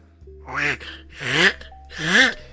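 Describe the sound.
A voice imitates Donald Duck sneezing: three loud, squawky, nasal bursts, each one bending up and then down in pitch, with breathy noise and short gaps between them.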